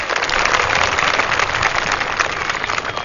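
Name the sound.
audience clapping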